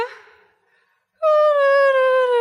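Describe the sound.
A badly played flute piece, learned at school and played by the speaker's sister, gives one loud, shrill, sustained note that wavers slightly and sags in pitch. It follows a brief, fading sound and a short pause.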